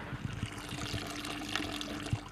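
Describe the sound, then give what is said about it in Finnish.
Apple juice from crushed apples gurgles and splashes out of a press in a steady, continuous stream, with irregular low bubbling bursts breaking through the trickle. No one speaks. “Kuuntelepa minkälainen lorina.”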